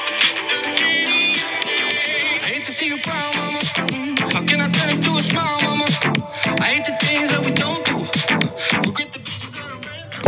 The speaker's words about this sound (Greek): θα βάλουμε λίγο όμω από το τραγούδι